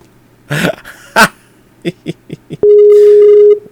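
A few short, muffled bumps and clicks, then a single steady electronic tone that holds for about a second before cutting off, as a conference call is ended by clicking a red phone icon on a computer.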